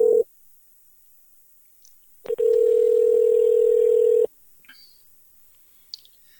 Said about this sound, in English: So anyway, so anyways, I'm I'm about ready to uh, dial the phone uh, here to get a hold of